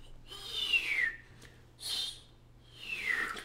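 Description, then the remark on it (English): A person whistles three breathy, wavering notes that slide downward in pitch, the middle one short and high. The whistling is airy and somewhat faint, with a low hum underneath and no talking. “it was the worst whistling I've ever done.”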